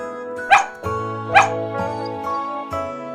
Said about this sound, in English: Dog woke up. Woof, woof, said Dog.